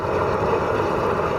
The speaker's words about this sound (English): First, you see this kid with a blowtorch, which sounds a little like this.